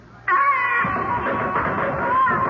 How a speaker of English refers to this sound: And once again, we hear the eldritch scream of the banshee wail.